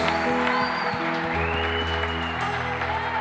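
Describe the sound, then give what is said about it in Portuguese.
A large group claps steadily and continuously, applauding the Lord for a man's life after his testimony of healing, a dense wash of applause filling the space over sustained organ-like tones, with some faint voices mixed in. “Vamos aplaudir o Senhor pela sua vida.”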